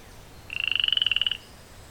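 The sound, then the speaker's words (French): A small frog named Gertrude croaks once in a rapid, buzzing trill of quick, evenly spaced pulses lasting under a second, clear against a quiet background. “Pour une petite grenouille, tu fais beaucoup de bruit Gertrude.”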